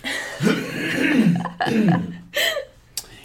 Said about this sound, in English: Hold on, mm. let me clear my throat and say this again.